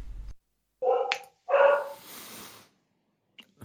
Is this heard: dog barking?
yes